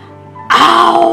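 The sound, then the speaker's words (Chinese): A voice imitates a lion's roar: after a soft, low hum, a loud, rough, drawn-out growling cry bursts in and holds steady to the end. “狮子看看小朋友，看看说故事的阿姨，看看合起来的书，开始大吼”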